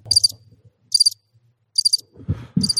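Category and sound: insect, cricket chirping sound effect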